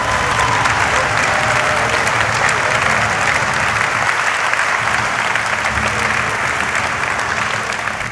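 Sustained, loud applause from a large crowd at the launch of the Sentinel 5P Earth observation satellite on 13 October 2017 fills the whole stretch, dense and steady with scattered cheering voices mixed in, tapering only slightly at the very end.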